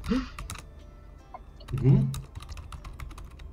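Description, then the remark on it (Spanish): Rapid clicks of typing on a computer keyboard while replying to a chat, fairly quiet, with an irregular rhythm; a brief murmur of a voice rises partway through. “Ah, sí, perdón, está contestando aquí un, al chat.”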